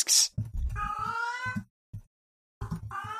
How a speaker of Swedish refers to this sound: Alltså, ni får oh, ursäkta mig, min eh, katt gör orimliga kåtljud här i bakgrunden. Hon hörde att vi började prata om penisar. Ja, tydligen. Löper hon eller? Ja, det gör hon.